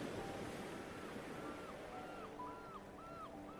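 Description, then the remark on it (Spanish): Ocean waves break and wash steadily against a shore in a continuous, fairly loud roar, while a string of short, high whistling tones repeats over it from midway on. “donde las notas musicales se combinan con las olas”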